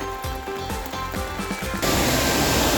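After a moment of other sounds, a loud, steady roar of rushing water from the large Golling waterfall surges in and fills the final second with dense, hissing noise.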